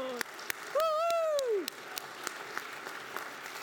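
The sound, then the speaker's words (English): An audience at First Universalist Church applauds its youth leadership team, with a steady patter of claps throughout, while a single high whoop or cheer rises and falls over the clapping early on. “So, another round of applause.”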